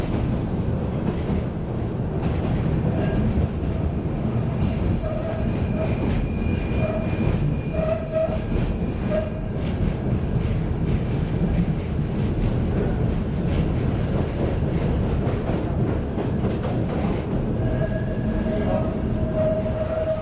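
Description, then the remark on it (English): A D line subway train, taken from 14th Street toward Coney Island, rumbles steadily along the rails, loud, with intermittent metallic wheel squeals and faint clacking throughout the ride, no voices. “Tu prends le métro, ligne D sur la 14e rue, tu descends au terminus,”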